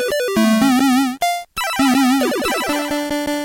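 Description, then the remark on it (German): Electronic synthesizer tones from a tone generator, each key producing a single sound: a run of bright, buzzy pitched notes with rich harmonics, some wavering with vibrato, others sliding, broken by a short pause, then sustained steady tones. “Und das ist immer, eine Taste hat hier sozusagen eigentlich nur einen Sound, der mit einem Tongenerator gemacht werden muss.”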